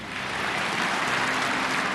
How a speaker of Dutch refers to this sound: Op grote afstand in een zaal gevuld met zijn aanhangers, die eh, bij elke gepeperde uitspraak opstonden om te klappen.